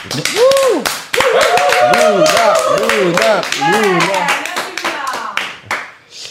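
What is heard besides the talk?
people clapping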